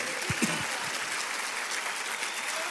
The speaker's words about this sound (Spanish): Vamos, denle un aplauso fuerte.